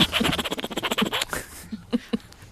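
A wolverine huffs and grunts in a fast, raspy burst of breathy pulses, then falls mostly quiet except for a few short, low grunts near the end, with no talking.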